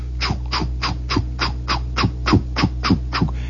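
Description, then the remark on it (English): A voice imitates how a paddle wheeler's churning sounds from a block away on its return trip with the calliope turned off: a steady run of about a dozen quick, raspy swishing beats over a low rumble, evenly paced and moderately loud. “That's the way a paddle wheeler sounds from a block away.”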